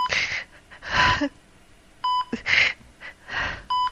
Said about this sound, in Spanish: Su respiración es débil. Sus labios quieren abrirse, pero solo se escuchan unos leves quejidos.